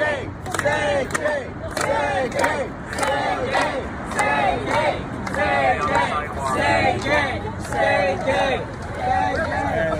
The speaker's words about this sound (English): I mean, this is this is just heroism. They're marching down in California, shouting the word "gay," say "gay," say "gay."